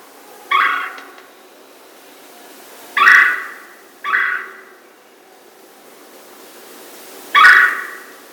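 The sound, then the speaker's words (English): A red-bellied woodpecker gives four rolling, burry churr calls, irregularly spaced over several seconds, each fairly loud against a quiet background. “red-bellied woodpecker.”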